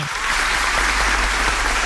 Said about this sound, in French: une bonne main d'applaudissement pour notre ami